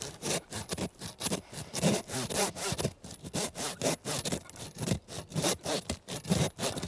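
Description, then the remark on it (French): A hand saw works steadily through an animal's ribs, with about two rasping back-and-forth strokes per second continuing for several seconds and no voices. “Puis après, on doit scier les côtes.”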